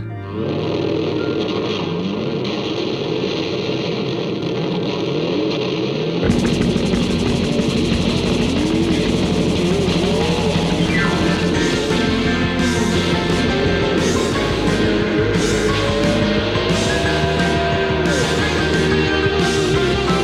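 An electric guitar imitates a motorcycle engine revving in the guitar solo of an album's opening track, its loud, gritty tone swelling into repeated rising and falling pitch sweeps, dense and continuous with no one speaking.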